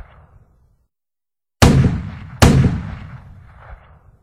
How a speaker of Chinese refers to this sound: 国民党的军队根本不反击日本人，任由炮火轰炸着无辜的百姓们。